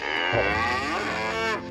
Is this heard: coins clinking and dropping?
no